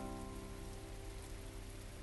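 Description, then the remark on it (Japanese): Gentle night rain falls slowly and steadily on asphalt in front of a convenience store by a train station, a soft, continuous patter that stays quiet and even throughout, with a faint low hum beneath it. “ゆっくりと雨粒が見えるくらいに静かに落ちてくる”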